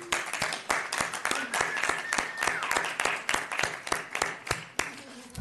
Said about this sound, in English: So I would, I would like to suspend the rules of decorum so that the board can give a round of applause to county staff for their work.